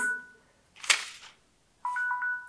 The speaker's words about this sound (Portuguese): Meu alarme, nosso tempo está esgotando.